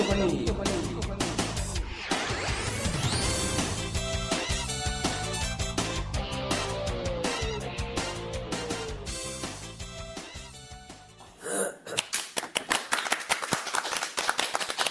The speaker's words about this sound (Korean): 야, 오늘도 역시 방청객의 어, 박수 소리가 들리고 있습니다.